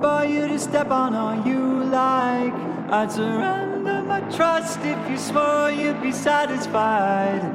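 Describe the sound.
A song plays at full volume, with a sung vocal melody carried over steady instrumental backing, the voice holding long notes and phrasing in flowing lines throughout.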